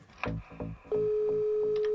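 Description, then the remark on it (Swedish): A steady, mid-pitched telephone ringing tone from an outgoing call to a massage salon customer sounds for about a second, clear, over faint rhythmic low thumps that pulse throughout. “Vi tar del av ett dokument med uppgifter om salongens kunder och ringer några samtal till de så kallade dubbelswisharna.”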